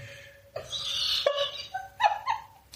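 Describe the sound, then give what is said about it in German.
A small gong is struck several times in quick succession to mark the last hour, each hit giving a sharp metallic attack followed by a bright, shimmering ring that overlaps the next strike, heard alone. “hat einfach mal den Gong zur letzten Stunde geschlagen. Das ist ein kleiner Ventrian.”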